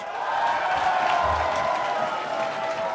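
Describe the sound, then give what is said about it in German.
A room full of people bursts into loud, sustained applause, dense clapping mixed with a few cheers, filling the whole space for several seconds without pause. “Und heute Abend sind wir, und bitte bestätige das mit einem lauten Applaus, im Kuchenkaiser in Kreuzberg.”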